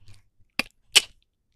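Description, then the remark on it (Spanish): A nutshell cracks in a wooden nutcracker shaped like a little man, with two sharp, crunchy snaps less than half a second apart, the second louder and more splintering, as the shell breaks into small pieces, followed by quiet. “La cáscara se rompió en trocitos.”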